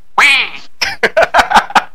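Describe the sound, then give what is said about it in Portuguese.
A duck quacks loud: one drawn-out nasal call followed by a quick run of six short, sharp quacks in a steady rhythm, with no other sounds around it. “E aí a Rosa pegou e mandou aqui, por causa que eu falei do pato”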